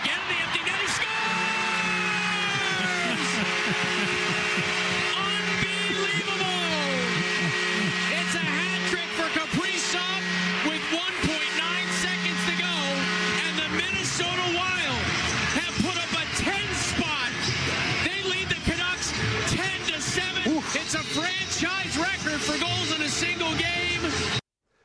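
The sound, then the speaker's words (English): A loud, sustained hockey arena goal celebration as Kirill Kaprizov of the Minnesota Wild scores his third goal, into an empty net, against the Vancouver Canucks: booming music blares over the speakers, with a dense roar and shifting tones filling the whole stretch at full volume. “Oh, they were uh, blaring the speakers on that one”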